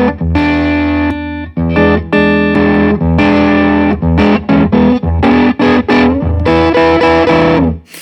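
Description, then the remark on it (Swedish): A loud, fuzzy distorted slide guitar played through a fuzzy, farting-sounding amplifier tone plays sliding, gliding notes with thick sustained harmonics, moving through a short riff of bends and choppy phrases with no talking. “Kan jag tänka mig att med din eh, slide-gitarr låter det astufft ja, också?”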